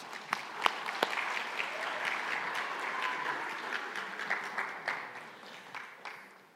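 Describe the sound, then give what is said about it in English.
A church audience breaks into a round of applause for the volunteers, many hands clapping in a dense, steady patter that holds for several seconds before gradually thinning out toward the end. “Can we give our volunteers a little round of applause?”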